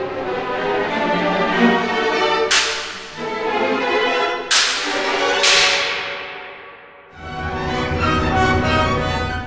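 Three sharp cracks of a horse whip, played as an orchestral percussion instrument, snap out over a full orchestra, two close together after the first, each a loud, bright slap that cuts through the sustained music.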